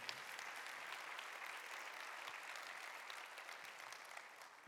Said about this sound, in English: Can I just say again, how great is our God? Come on, give the Lord a clap of praise tonight.